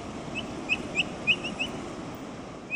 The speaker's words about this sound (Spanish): los adultos, cuando se sienten amenazados, sí suelen hacer como un ruido de alerta que parece un ladrido medio ronco. Y los cachorritos sí pueden sonar parecidos a los cobayos. Aquí pueden escuchar el sonido de los carpinchos.